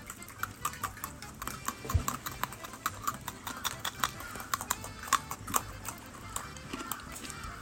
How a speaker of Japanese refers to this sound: それではここでルールの説明ですこの手に持ったポッキーをポリポリ言わせながら誰が一番早く食べ終えられたかを競争します皆さんいいですかはいちゃんとポリポリ言わせてくださいねはい、はい、ポリポリ音がこの中に残るようにいきますよよーいスタート